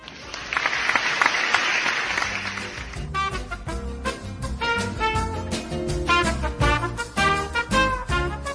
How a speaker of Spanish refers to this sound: Eso merece un aplauso.